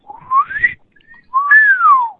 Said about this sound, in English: yeah, it basically sounds like a slide whistle. Yeah. At first it goes up, then it goes down.